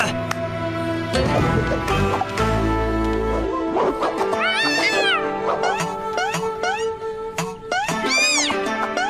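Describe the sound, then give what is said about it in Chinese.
Several cats meow in a quick series of high, rising-and-falling cries, some overlapping, heard over a steady tonal background with a few sharp knocks, no talking. “现在轮到小猫咪们展现实力了。”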